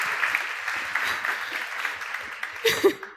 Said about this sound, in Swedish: Välkommen upp på scenen, Lena Apler. En varm applåd.